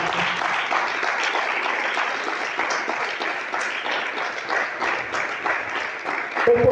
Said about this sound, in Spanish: ¿Alguien puede decir amén a eso? ¿Alguien puede aplaudir esta tarde fuerte al Señor?